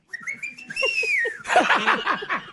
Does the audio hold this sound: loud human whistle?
yes